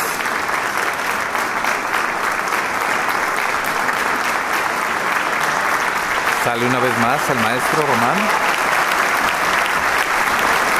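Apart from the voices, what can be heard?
concert audience applause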